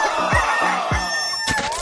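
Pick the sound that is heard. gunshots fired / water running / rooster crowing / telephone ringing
rooster crowing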